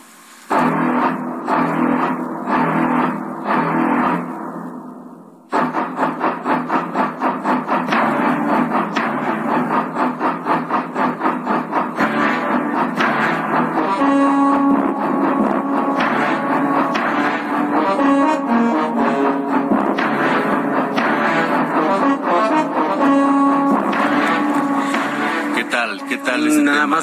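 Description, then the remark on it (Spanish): Orchestral theme music from the 1975 shark film Jaws (Tiburón): deep, sustained brass tones open, pause briefly, then the full orchestra surges in loud and dense with a driving, pulsing rhythm. No one speaks. “recuerdo que el 20 de junio, 20 de junio de aquel lejano 1975, hace 52 años, las salas del cine mundial se estremecían solo con escuchar este tema.”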